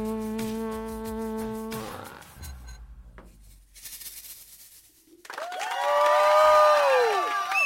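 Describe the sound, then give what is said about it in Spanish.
A crowd, including people from Colombia and Ecuador, applauds after a few seconds of sustained musical tones, the clapping swelling into loud cheering with shrill rising-and-falling whistles near the end. “Wow, cuánta gente aplaudiendo vinieron de Colombia, de Ecuador.”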